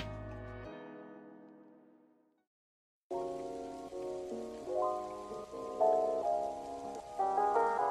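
Steady rainy-season rain hiss runs under mellow melodic music after a sustained, fading tonal opening and a brief silence; the rainfall forms a constant textured backdrop, with no talking.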